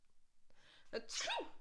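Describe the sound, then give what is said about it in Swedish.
A person performs a single loud, deliberate fake sneeze, with a short breathy intake leading into a sharp, high burst that trails off quickly. “Om du nu skulle säga tack, nys.”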